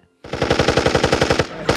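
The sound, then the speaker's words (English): An Uzi submachine gun fires a rapid burst of more than a dozen loud, sharp shots in quick, even succession, stops briefly, then starts another burst. “Well, today I went to the market and I bought 10 boxes of shotgun ammo and I bought you a new Uzi.”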